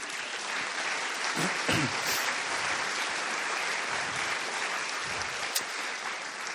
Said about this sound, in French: Alors, si vous voulez bien vous lever, qu'on puisse les applaudir, parce que.